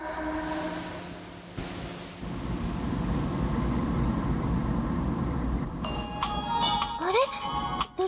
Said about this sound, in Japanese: 電話